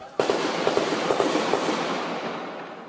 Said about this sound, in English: That's what a different neighborhood in Beirut sounded like last month after the car bomb assassination of a senior security officials.